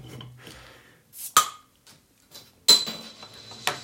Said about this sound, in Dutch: Kun jij dit doen? Op de ene manier kan ik vandaag geen bier openmaken.